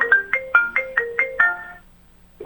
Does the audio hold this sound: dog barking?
no